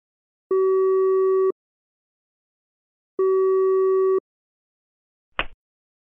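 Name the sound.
telephone line tone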